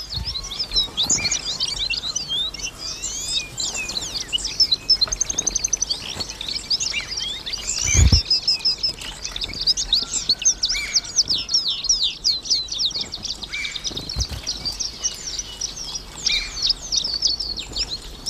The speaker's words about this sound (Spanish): Un bandito de canarios revolotea en torno a unas higueras, a unos higos, a unos tajinastes. Y tenemos este parloteo que nos suena, a los peninsulares nos suena, a jaula, pero en Canarias es el sonido típico de la naturaleza salvaje.